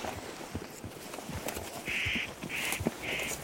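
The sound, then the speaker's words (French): A spotted nutcracker gives three harsh, rasping calls in quick succession in a nature reserve, moderately loud against a faint outdoor background with scattered soft knocks and rustles. “Ah, c'est le casse-noix moucheté.”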